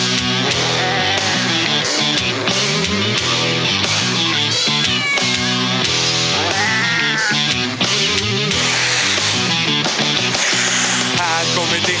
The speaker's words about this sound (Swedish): en katt. Här kommer det en till.